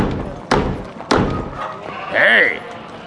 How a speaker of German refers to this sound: Doch eines Tages klopfte der Gierschlund an das Burgtor des kleinen Ritters.